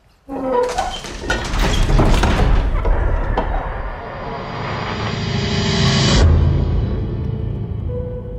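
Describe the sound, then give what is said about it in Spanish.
A heavy door of the Castillo de Santelmo grinds open with a deep, sustained rumble and scattered creaks and thuds, swelling to a loud grating peak near the end before easing off. No one speaks. “Abrid la puerta.”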